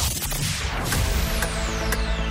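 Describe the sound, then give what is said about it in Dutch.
A countdown clock ticks steadily about twice a second, marking the time given to answer a question in a music quiz, sharp clicks set against a loud, dense rushing wash of sound, with no voices present. “En na elke vraag krijg je dit klokje te horen.”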